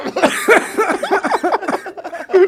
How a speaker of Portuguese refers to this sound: Não faz o Monark rir que ele tosse